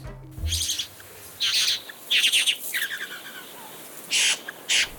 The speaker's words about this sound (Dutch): Dit is het geluid van de priëelvogel. De mannetjes maken met takjes kleine priëlen, die ze vervolgens versieren met verzamelingen gekleurde dingen. Bessen, bloemetjes, stukjes plastic. Dit alles natuurlijk om het vrouwtje over te halen tot paren.